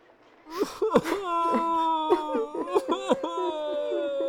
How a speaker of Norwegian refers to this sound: Hvorfor støyer og gråter dere?